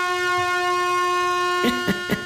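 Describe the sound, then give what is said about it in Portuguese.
A ship's horn used as a morning alarm clock blares in one long, steady, loud blast with a bright, buzzy tone, and three sharp knocks sound in quick succession near the end. “A buzina do navio.”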